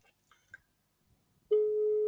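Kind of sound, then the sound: signal or alarm, video call ringing tone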